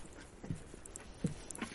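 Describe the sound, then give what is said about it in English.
Dogs out on an outdoor walk in beautiful scenery: three soft, irregular steps or paw scuffs against a quiet, hissy open-air background, with no one talking. “I'm walking the dogs in beautiful scenery.”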